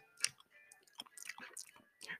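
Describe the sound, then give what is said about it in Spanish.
A federal deputy chews wetly and loudly, with repeated mouth smacks and clicks in an uneven rhythm, with faint tonal background hum underneath. “Escuchen cómo mastica ese diputado federal”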